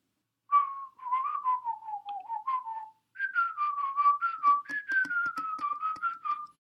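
The catchy theme melody of a currently popular TV series, whistled in two clear phrases with a brief pause between them, the second phrase backed by soft rhythmic clicks; no one speaks.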